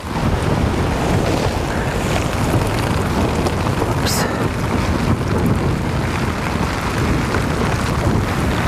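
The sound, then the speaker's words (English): A steady, loud roar of storm wind and rain batters a tent, caving it in, after 2 o'clock on October 4th, a dense unbroken wash of noise from start to finish. A voice briefly exclaims once near the middle. “Well, it's now after uh, 2 o'clock on October 4th, and the tent is caved in due to the storm.”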